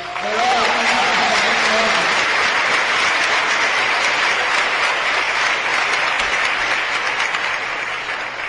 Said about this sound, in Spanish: que está acá presente, que les pido un aplauso para él porque